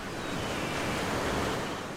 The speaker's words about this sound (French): Écoute le rugissement rythmique de la mer lorsque les vagues rencontrent la plage et se retirent.